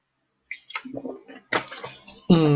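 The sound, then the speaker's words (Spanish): A speaker sips and swallows water: a short run of wet clicks and gulps over a couple of seconds, ending in a brief voiced exhale. “Déjeme tomarle tantito al agua que ya se me acabó la garganta.”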